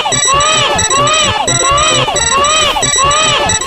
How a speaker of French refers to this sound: Et le truc qui motive à récupérer, c'est le hurlement horrible que fait Mario quand il est dans sa bulle. Oh, Je vous assure que vous avez jamais entendu un bébé pleurer de cette manière, et surtout pas avec le bip derrière.